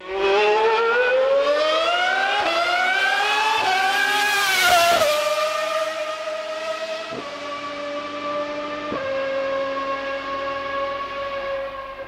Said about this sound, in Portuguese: Pausa para ouvir os motores V12 passando.